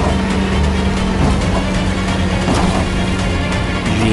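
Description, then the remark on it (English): Heavy vehicles roar loudly and continuously, a dense engine rumble with a few sharp knocks cutting through as a car rams into the back of an armored car during a chase. “the Batmobile finally catches up to the Joker and begins ramming into the back of the armored car”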